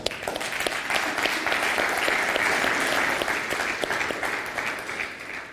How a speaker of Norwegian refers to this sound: Så jeg syns jo vi skal, skal vi bare gi hverandre en skikkelig god applaus.